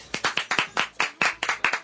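A quick burst of hand clapping, a dozen or so sharp, close claps in a brisk, slightly uneven rhythm, with no voices over it.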